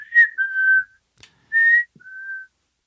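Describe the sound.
A person whistles a short melodic tune, a video game character's whistle: four clear sustained notes with brief gaps between them, loud and alone with no talking.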